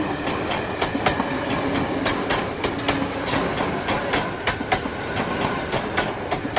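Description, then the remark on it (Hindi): A local train passing Naihati and Halisahar rolls along with a steady, loud rumble and a repeating clickety-clack of wheels over rail joints, sharp metallic clicks recurring through the whole stretch, with no voices. “local जब नैहाटी और हाली शहर के पास से निकली”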